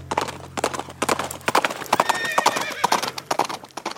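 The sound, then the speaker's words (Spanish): Horse hooves clip-clop in a quick, uneven rhythm, fairly loud, while a horse neighs and whinnies over them partway through, as a rider on horseback enters a church during mass. “A su regreso al interior de la villa, se daba cuenta que los habitantes se encontraban en misa y sin esperar ni un instante se adentraba dentro del recinto religioso con todo y caballo para avisar a los feligreses del inminente peligro.”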